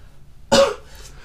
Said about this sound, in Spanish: ¿Estás con tos? Tosí una vez, no me dejes pegado.